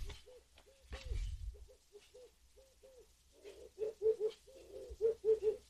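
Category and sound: bird, pigeon or dove cooing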